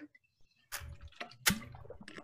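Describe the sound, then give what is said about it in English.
Wet gulping and sloshing as someone drinks water from a bottle during a quick hydration break, a few quick swallows with liquid splashing inside, brief and fairly loud against a quiet background. “the whole water. Bottle. Little water break.”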